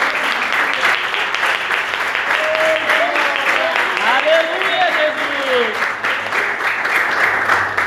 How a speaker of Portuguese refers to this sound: E eu também queria pedir nessa noite, né? Uma salva de palmas para Deus nessa noite. Glória a Aleluia, Jesus.